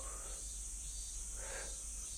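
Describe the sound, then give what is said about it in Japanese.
A dense cicada chorus of minmin and bear cicadas: a constant high, hissing drone with slower, swelling calls rising and falling over it, loud, with no talking. “うん、これはミンミンゼミとクマゼミかなミンミンミンミンって言ってるやつがミンミンゼミで、なんかシーって言ってるのが”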